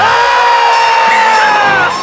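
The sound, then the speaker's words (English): A crowd of kids screams loudly and continuously for about two seconds in response to someone saying the secret word, "cheese". Their shrill voices blend into one sustained roar with no talking. “and now for the rest of the day, if anyone says the secret word, you scream.”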